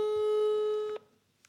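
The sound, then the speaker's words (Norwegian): A steady electronic telephone ringback tone from a call to a grandmother holds for about a second, then cuts off abruptly into near silence, like a call going unanswered. No one speaks. “Nå ringer vi bestemor.”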